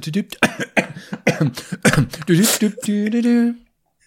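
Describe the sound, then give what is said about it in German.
A series of short, harsh coughs and throat-clearing sounds, with a noisy burst midway, ending in a drawn-out voiced hum before falling silent. “Wird immer lauter, wenn man Hustet redet.”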